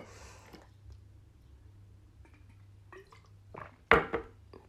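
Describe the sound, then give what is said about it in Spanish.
Someone takes a drink of water: a soft rustle, faint sips and swallows, then a sharp clunk and a second knock, like a cup being set down. “Pausa para beber agua.”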